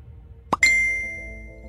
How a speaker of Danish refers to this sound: Nede i en taske ligger en telefon og larmer.